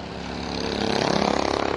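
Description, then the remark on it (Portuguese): Racing cars speed through the high-speed S curve during a race, their engines a loud, continuous roar that climbs in pitch and swells, with a rapid pulsing rasp as they pass. “Eles que vão rasgando pelo S de alta mais uma vez.”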